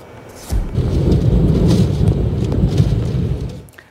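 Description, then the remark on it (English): Storm Bella hammers Britain with heavy rain and hurricane force winds of up to 170 km/h, causing widespread flooding across the UK; the storm roars in abruptly after a brief quieter moment, then holds as a dense, rumbling wash of noise before easing slightly at the end. “Bella is dumping rain and packing hurricane force winds of up to 170 kilometers an hour.”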